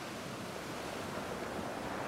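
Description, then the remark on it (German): Steady, rushing roar of the rough Black Sea surf breaking forcefully against rocks in a small bay at Gursuf, a resort northeast of Yalta in Crimea, a dense wash of water noise at an even level with no distinct separate crashes and no voices. “In Gursuf, einem Badeort nordöstlich von Jalta, klatscht in einer kleinen Bucht das Schwarze Meer in seiner Aufgewühltheit wuchtig an die Felsen.”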